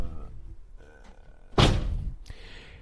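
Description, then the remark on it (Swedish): A door is shut with a solid, thudding slam partway through, followed by a brief rattling settle and a second faint knock, with quiet background noise before and after. “Stänger du dörren?”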